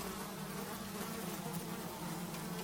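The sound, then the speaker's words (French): A dense swarm of flies buzzes continuously, a thick, droning hum with overlapping wingbeats that stays steady throughout, with no voices. “Et va s'en échapper des tas et des tas de mouches.”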